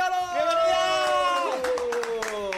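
Applause welcomes a guest to the show as scattered, brisk claps ring out beneath a loud, sustained cheering tone that holds steady and then slides slightly downward, filling the whole few seconds.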